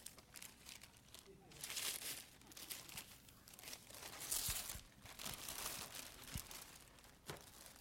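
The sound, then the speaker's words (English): Wrapping paper on a present with a bow crinkles and tears in repeated bursts as it is ripped open, fairly quiet, with rustling continuing throughout the few seconds. “Yeah, oh, well, trust me, I'm ripping.”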